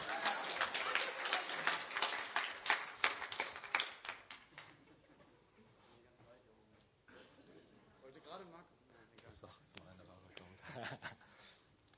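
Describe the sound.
A burst of audience applause, dense and loud with many overlapping claps, lasts about four seconds and then dies away as a voice starts talking over the fading claps.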